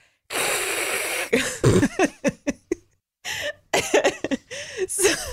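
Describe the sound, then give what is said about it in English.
A person makes a steady, breathy hissing sound with their mouth for about a second, imitating white noise. Short bursts of laughter and breathy vocal sounds follow. “well, you've probably heard of white noise. It kind of sounds like this.”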